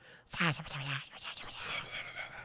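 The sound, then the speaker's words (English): A voice imitates eerie whispering, a breathy, hissing murmur with a brief voiced tone near the start, then rasping, airy whispers trailing off over a couple of seconds. “he keeps hearing he's like keeps hearing whispers all the time.”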